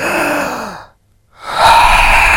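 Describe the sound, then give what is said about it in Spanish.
A loud, deep forced breath done as a breathing exercise: a long noisy exhale, a brief silent pause, then a strong drawn-in inhale, with no talking. “¿Cómo podemos describir esta respiración? Fuerte. Descríbalo usted. Profunda. Larga.”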